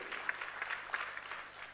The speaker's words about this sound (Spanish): Y yo puse entre sí, pueden aplaudir.